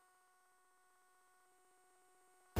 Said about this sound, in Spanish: Su alarma de Securitas Direct ha sido desconectada. Anda, si te has puesto alarma.